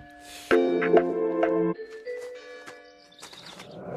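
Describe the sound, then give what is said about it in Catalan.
Bells ring out in a loud, resonant burst, several strikes overlapping into long sustained tones, then thinning to softer, scattered chimes as the ringing fades. “Sonaven campanes, eh?”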